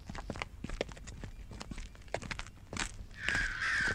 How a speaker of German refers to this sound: Da, das dritte Mal. Wenn eine Krähe dreimal schreit, geschieht bald Unheil dir und Leid.